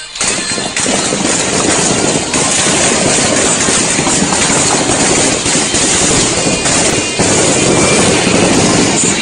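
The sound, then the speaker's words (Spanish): A car engine roars loudly and continuously as the car accelerates into a gas station during a shootout near Avenida Universitarios in Culiacán, revving hard with a dense, rough rumble that holds steady across the whole stretch, broken only by a few brief dips; no one speaks. “Acelera, se mete una gasolinera.”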